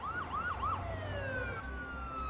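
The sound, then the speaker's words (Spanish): Police car sirens wail loudly, one rapidly yelping while other sustained tones glide overlapping, over a steady low engine rumble, as several emergency patrol cars rush into the Back Bay district of Boston responding to wounded officers. “En cuestión de minutos, el distrito de Back Bay, tranquilo por lo general, se vio repleto de patrullas de emergencia.”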